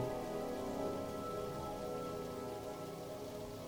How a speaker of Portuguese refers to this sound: E conforme tu continua caminhando por esse espaço, sente que o barulho da água vai aumentando e te chamando.